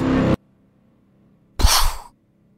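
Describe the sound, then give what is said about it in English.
A voice makes a short, breathy burst imitating a supernova explosion, a weak puff of noise after a pause of near silence, with a brief vocal sound at the very start. “That was the most pathetic supernova explosion I've was ever it, heard.”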